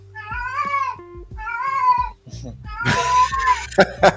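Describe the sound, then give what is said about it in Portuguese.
A cat meows twice in long, drawn-out wails, followed by a burst of noisy rustling and a brief, higher-pitched yowl near the end. “Por exemplo, esse tá. gato aí.”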